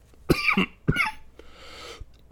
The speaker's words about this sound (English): Golly. I'm sorry to keep coughing in your ears.